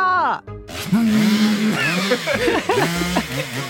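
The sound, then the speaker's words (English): A voice imitates a revving chainsaw, a loud buzzing drone that climbs and dips in pitch through several quick revs after a brief opening sputter. “I can't hear you over my chainsaw.”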